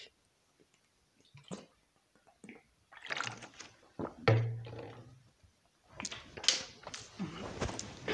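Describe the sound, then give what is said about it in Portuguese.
Drinking a glass of water: scattered soft clicks and liquid movement, a heavy thunk of a glass set down midway, then more sips, swallows and clinks, all fairly quiet with no talking. “beber uma água.”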